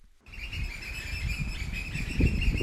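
Birds chirp steadily in a continuous chorus over a constant outdoor rumble of wind and North Sea surf on the island of Norderney, amid sea and dunes during a small group's meditation walk, starting abruptly after a brief silence and staying moderately loud throughout, with no voices.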